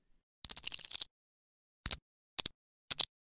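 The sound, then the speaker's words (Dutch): Lego bricks clicking and rattling: a quick flurry of sharp plastic clicks, then three separate snaps spaced about half a second apart. No voices. “Er daar was een hint van nodig, maar we hoorden natuurlijk Lego-blokjes, want Lego bestond vorige week woensdag precies 90 jaar.”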